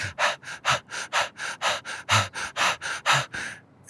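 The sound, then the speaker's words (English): A person imitates a dog panting: a quick, steady run of about fifteen breathy huffs, fairly loud, with no talking. “you know, there's arguments about can dogs smile when they pant and you see their lips go up.”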